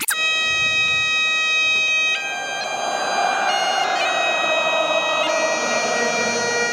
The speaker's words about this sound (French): ça me donne la chair de poule à moins que ce soit à cause de la cornemuse.